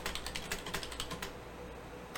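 Rapid clicking of keys on a computer keyboard, a quick irregular run of taps that thins out toward the end, with no voices.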